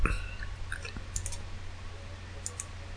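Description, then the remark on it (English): A handful of sharp, quick clicks spaced irregularly, as someone quickly clicks through photos of a woman on a phone or computer, over a low steady background hum. “I'm I'm quickly clicking through her.”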